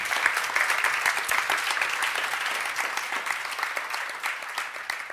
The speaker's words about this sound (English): Could we welcome our speakers with a warm round of applause?